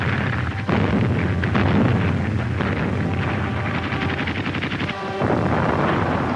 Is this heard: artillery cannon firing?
yes